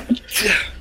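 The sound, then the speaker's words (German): A single sharp sneeze, a brief intake followed by a bright, explosive burst of breath that fades quickly. “Gesundheit. Gesundheit.”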